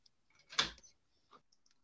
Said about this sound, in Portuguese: Deixa eu só passar a chave na minha porta aqui que eu esqueci antes que as crianças invadam.